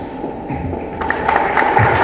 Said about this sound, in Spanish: Se agradecemos con un fuerte aplauso.